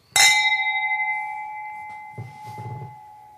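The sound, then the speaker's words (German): Two wine glasses touch in a single bright clink as a toast while tasting a Kabinett wine, and their clear ringing tone lingers and slowly fades over a few seconds, with faint handling sounds underneath. “Okay, dann probieren wir das Ganze mal. Jawohl. Cheers. Prost.”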